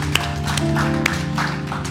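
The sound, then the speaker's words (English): A crowd claps together in praise of the Lord, a steady wash of handclaps with a few sharper claps standing out, over sustained musical tones from an organ or keyboard. “Give the Lord a hand clap of praise one more time.”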